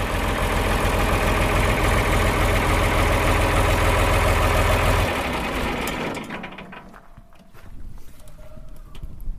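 A 1965 John Deere 4020 diesel tractor, just started on a farm in Halland, Sweden, idles loudly with a steady, knocking chug, then drops away after about five seconds, leaving a faint rumble and scattered clicks.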